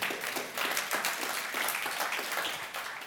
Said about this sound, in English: And we're clapping in that moment because we know it's true and we've seen it.